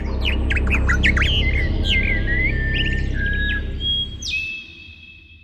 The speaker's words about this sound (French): Et aujourd'hui, on va écouter l'un des sons les plus harmonieux qu'on puisse entendre sur notre petite planète, le chant des oiseaux.